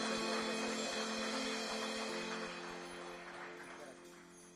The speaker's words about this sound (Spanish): Gracias Rey de Reyes, gracias Señor de Señor. No te quiero fallar jamás. Dele un fuerte aplauso al Rey de Reyes.